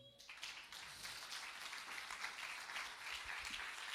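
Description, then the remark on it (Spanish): An audience bursts into sustained applause for the Lord, a dense steady wash of many hands clapping at once, bright and even throughout with no voices heard over it. “Cinco, si no hay nadie, den un aplauso al Señor.”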